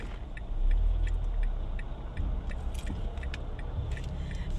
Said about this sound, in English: sorry to back up for this big ass truck.